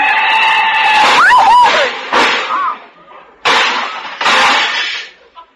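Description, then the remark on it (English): A car crash sound effect of a collision with a big black touring car: a brief squealing screech, then several loud, harsh crunching bursts of metal and shattering glass in quick succession, with short pauses between the last impacts before tailing off. “Why don't you watch where you're my fenders, my shining fenders lying in the gutter.”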